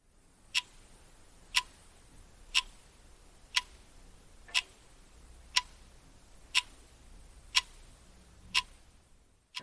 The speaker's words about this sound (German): Genau, das ist der äh, Wecker, der auf meinem Nachttisch steht.